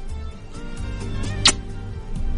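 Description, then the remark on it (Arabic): A single quick kissing smack, sent on air, pops out midway through, sharp and brief, over a low, steady background hum with no talking. “سمعت القبلة هذه قبلة على الهواء لثامر آه الله يجبر خاطرك”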